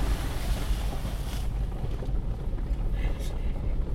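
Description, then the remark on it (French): Steady rushing water while crossing a small river, a continuous broad wash mixed with heavy wind buffeting the microphone and a low rumble throughout, with no clear pauses. “On traverse une petite rivière.”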